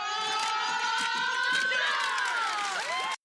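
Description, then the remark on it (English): A group of kids on a team called the Ducks quacking like ducks right before a game, in a loud, overlapping chorus, their raised voices blending into one steady, excited wall of noise for about three seconds. “They're right before a game, and they they finally kind of buy in here, to where they're all quacking, they're all ready to go.”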